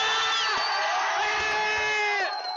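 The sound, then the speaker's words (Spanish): A loud crowd cheers and whoops without pause, many voices shouting together in a dense wall of sound, with applause blended into the roar, applauding a couple in love. “Un aplauso para esta pareja que está enamorada.”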